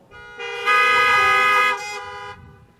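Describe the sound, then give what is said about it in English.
Several car horns blare together in one sustained, overlapping honk lasting about two seconds, swelling louder in the middle before tapering off, with no talking. “If that was fear she was displaying, honk your horn.”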